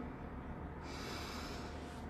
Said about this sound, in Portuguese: Faz uma inspiração profunda.